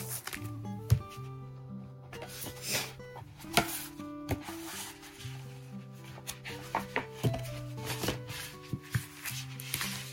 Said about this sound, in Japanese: で、ここがこう入るんですよね。ここっていうのはペンホルダーの話ですね。今ちょっとね、入れてみましょうか。